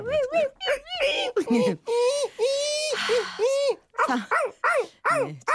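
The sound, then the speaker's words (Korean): A person imitates puppy whining, with a run of high, nasal whimpers and yips, some rising and falling, closely miked and fairly loud, continuing almost without pause. “강아지 소리.”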